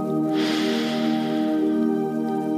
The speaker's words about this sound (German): Wir atmen nochmal ein durch die Nase.